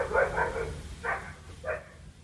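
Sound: dog barking outside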